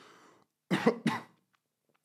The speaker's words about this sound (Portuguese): Aí, epá. Que chatice. Que vou estar a tossir o episódio todo.